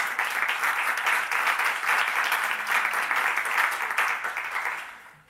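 An audience breaks into steady applause, a dense, even wash of many hands clapping at once that holds for several seconds before tapering off at the end.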